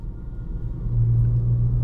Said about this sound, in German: Und jetzt bin ich gerade auf der A3 am Kreuz Kaserberg und was soll ich euch sagen? Es ist noch mehr Stau als vorher.